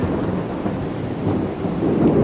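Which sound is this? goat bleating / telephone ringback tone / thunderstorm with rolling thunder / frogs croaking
thunderstorm with rolling thunder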